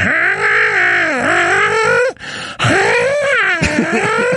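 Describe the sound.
A person imitates a cat's yowl with two loud, long, wavering, drawn-out vocal howls separated by a brief pause.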